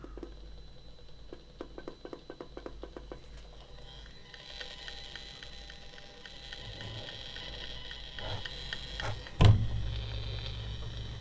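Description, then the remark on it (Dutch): A radiation meter, reading nearly a hundred times the normal level, turned into sound: irregular, sharp ticking clicks that grow into a denser crackling hiss, with one loud thump near the end. No one speaks. “En ehm, als je het in geluid gaat vertalen.”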